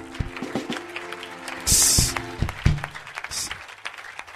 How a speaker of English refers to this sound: Keep on clapping.